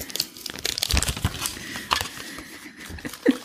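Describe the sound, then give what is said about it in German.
Continuous crinkling and rustling of a yellow plastic packet being handled and shaken out as its blue contents are emptied onto a mixture, with scattered crisp crackles and a few soft thumps, no talking. “In der gelben Packung ist das blaue Zeug.”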